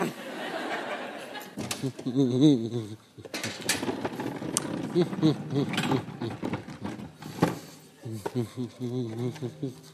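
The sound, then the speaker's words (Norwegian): Dishes clatter in irregular bursts as an old table is set for breakfast in a living room during a staged comic sketch. Sharp clinks and knocks are scattered through, while voices chuckle and murmur in between. “Jeg har eh, tatt fram det gamle bordet og de to stolene og gjort klart til, eh, gjør klart til frokost.”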